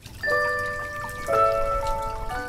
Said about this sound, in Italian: si levò di piedi una ciabatta e riempitola d'acqua annaffiò la terra che copriva la buca.